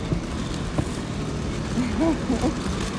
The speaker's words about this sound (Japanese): ブーもいるねブーって車ブーってブー速いねブーってブー聞こえますか